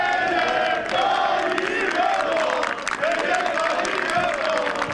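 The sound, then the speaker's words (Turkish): A large crowd of civilians chants slogans in unison in the courtyard of Anıtkabir, Atatürk's mausoleum, during a holiday commemoration, loud and continuous, with rising and falling voices repeating in rhythmic phrases over a dense roar of many people. “Anıtkabir avlusuna alınan sivillerin slogan atmalarına da iktidarın sessiz kalmasına da muhalefet tepkili.”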